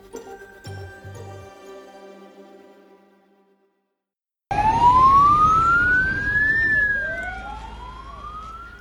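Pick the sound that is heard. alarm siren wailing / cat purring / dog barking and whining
alarm siren wailing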